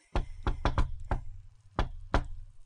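impact, knocking on a door

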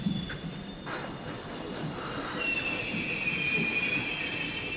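vehicle, train at station platform

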